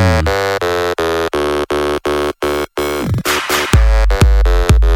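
A loud, buzzy synth lead plays a rhythmic stabbing riff in an electronic house instrumental, then opens into a denser, rising section with deep bass thumps. No voices.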